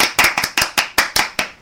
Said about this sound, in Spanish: Da igual, vamos a darle un aplauso al hermano.